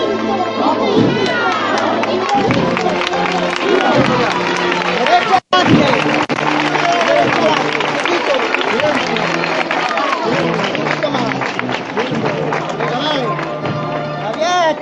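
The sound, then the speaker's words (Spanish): A crowd applauding steadily as the street procession of Nuestro Padre Jesús de la Caída advances toward Molino de la Condesa, the clapping blending with cheers and a dense babble of voices for the whole stretch, broken only by a split-second dropout partway through. “nuestro Padre Jesús de la Caída avanza poco a poco entre los sones y los aplausos de la gente que está aquí congregada.”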